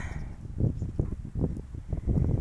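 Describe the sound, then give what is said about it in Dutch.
Low, rumbling strong wind buffets a microphone in uneven gusts as a hand is held in front of it, a steady muffled roar with bursts of louder thumping across the whole stretch. “Nou, het waait heel helder, dus ik ga even mijn hand voor de microfoon in de koppen, dat helpt.”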